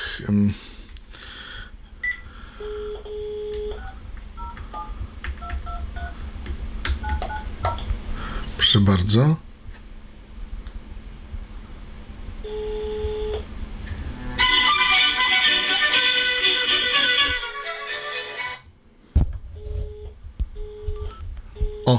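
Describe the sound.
A run of short electronic dialing tones beeps out one after another as a call is placed from a landline number to a mobile number, followed by a burst of loud, warbling ringing from a loudspeaker and a cordless phone handset. A person speaks briefly near the start.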